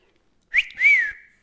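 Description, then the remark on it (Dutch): A person whistles an imitation of a two-part catcall: a short rising chirp followed by a longer swooping tone that falls away, with no talking. “Zo'n fluitje dus.”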